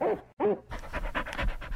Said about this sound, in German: wie kommt eigentlich der Hund hier ins Radiostudio?